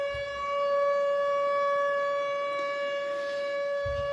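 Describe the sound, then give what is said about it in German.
A civil defense siren wails steadily at a constant pitch, loud and sustained through the whole stretch, with faint low rumbles at the start and end and no talking. “Es ist so gefährlich, dass man die Sirene anschalten muss.”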